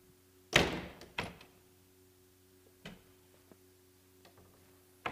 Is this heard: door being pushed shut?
yes